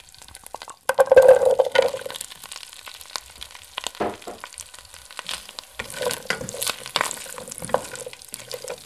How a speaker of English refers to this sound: We're going to add three tablespoons of butter to the pan. Once that butter is nice and sizzling, just add the radishes.